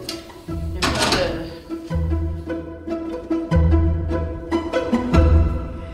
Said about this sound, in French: Oui, oui. ça, c'est le système D. On va juste fermer la porte comme ça.